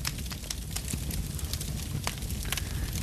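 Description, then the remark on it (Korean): A campfire of dry twigs burns, with frequent sharp crackles and snaps scattered over a steady low roar of flame; the ash at the bottom is stirred with a poker to let in air so the fire blazes up. No one speaks. “그리고 불이 싹 올라올 때는 불쏘시개로 밑에를 이 재가 많이 쌓인 곳을 휘집어주면 공기가 많이 들어가면서 불이 활활 잘 타오르게 됐죠.”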